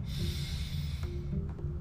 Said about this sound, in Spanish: Entonces, lo primero que hay que hacer es la famosa respiración de diafragma. ¿Cómo funciona? Te pones una mano del pecho y una mano del abdomen y respiras profundamente.